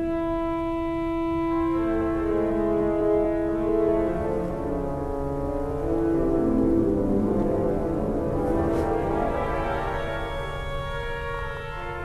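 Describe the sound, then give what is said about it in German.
Sustained pipe organ tones with dense, steady harmonics: the mellow, flute-like Gemshorn stop gives way to the brighter, more cutting Stentophon string stop. The Stentophon was added in 2005 and sounds with two pipes from the middle register up. The sound is full and continuous, with no voices. “Hier haben wir nochmal das Gemshorn und jetzt das Stentophon dagegen.”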